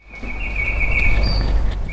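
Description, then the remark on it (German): A small music box, a metal mechanism imitating a nightingale, sings a steady, high chirping tone with a brief higher trill near the end over a low hum and faint mechanical rumble. It stands at the end of a long staircase in the new German Romantic Museum, beside the Goethe House in the city centre. “Hier zwitschert eine Nachtigall. Naja, keine echte, sondern eine kleine Spieldose.”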